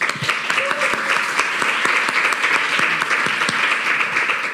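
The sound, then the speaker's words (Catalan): A crowd of people clapping steadily, a dense, continuous burst of applause that holds at a strong level throughout, with sharp individual claps popping out of the crowd. “Podeu pegar-li un fort aplaudiment.”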